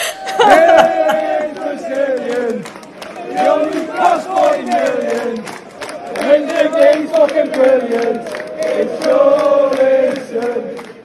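A large crowd of football fans sings the "He's Brazilian" chant for a player, the same chant used for Ederson, Richarlison and Joelinton with only the name changed. It is loud and melodic, in four repeated phrases with short breaks between them, with scattered claps and shouts underneath.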